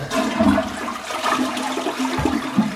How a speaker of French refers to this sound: La vessie se contracte, le robinet sourd et la miction se fait à faible pression.